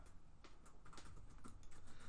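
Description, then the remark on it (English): Rapid typing on a computer keyboard, a steady flurry of crisp key clicks with no voices, fairly quiet overall. “We're doing some typing here.”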